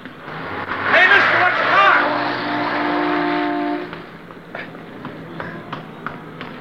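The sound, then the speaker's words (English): A car speeds past in a street, nearly hitting a man, its engine roaring loudly and then holding a steady droning whine before cutting off, leaving scattered sharp clatters and footsteps behind. “I thought sure you were going to get hit by that car.”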